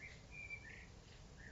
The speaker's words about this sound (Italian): È, è solo un merlo, eh? Si chiama Cico. Cico Cico C e Cico Cico Cia. Ecco, prova a chiamarlo, vediamo se... Cico? Ma Cicone? Sembra... Ma sembra che, non lo so, che canti uno stacchetto.